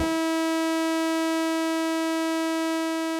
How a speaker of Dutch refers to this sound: De helderheidsgrafiek van een CVI lijkt veel meer op een zaagtand en klinkt dan zo.